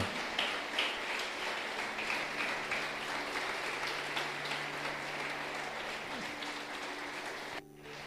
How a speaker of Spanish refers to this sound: Fuerte el aplauso a nuestro Cristo.